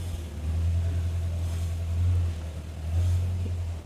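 A motorcycle engine rumbles, its deep, steady drone swelling twice as the throttle is revved. No one speaks.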